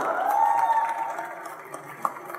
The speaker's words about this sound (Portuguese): Palmas para eles, por favor.